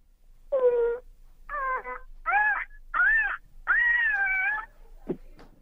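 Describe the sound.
A woman imitates an ostrich call with five drawn-out, warbling, wail-like cries separated by short pauses, ending in a brief low grunt and a few faint clicks. No one else speaks.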